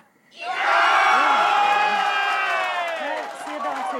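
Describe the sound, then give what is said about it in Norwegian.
A large crowd of EU supporters erupts into loud, sustained cheering during Sweden's EU vote, with whoops and shouts rising over a dense roar that holds steady for several seconds. “EU-tilhengerne jubler intenst.”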